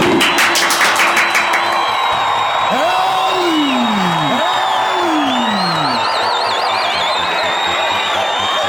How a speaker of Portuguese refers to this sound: Uma salva de palmas pra ele